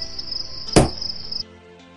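cricket chirping

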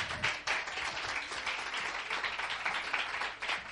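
audience applauding

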